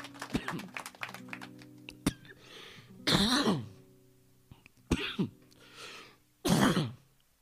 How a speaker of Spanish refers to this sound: Me dio ganas de toser.